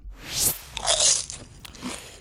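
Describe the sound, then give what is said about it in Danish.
Crisp crunching of popcorn being chewed, a few bright bites in quick succession with crackly texture, loud and dry with no talking. “Så er der fodbold og popcorn.”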